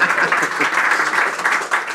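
Steady audience applause fills the whole stretch, a dense, even crackle of many hands clapping at once with no break in intensity.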